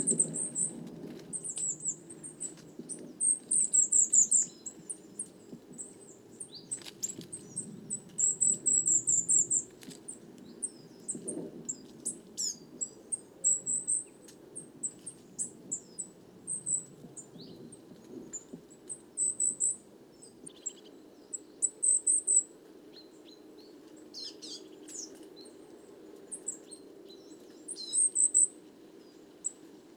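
High, thin calls of tits and kinglets feeding on insects in a beech tree with curled, dry leaves repeat in short scattered bursts over a steady low rustling hum, with no voices, the tiny notes coming in irregular clusters throughout.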